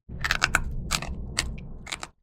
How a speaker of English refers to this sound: All with a crunch that rivals potato chips. Seriously, listen for yourselves.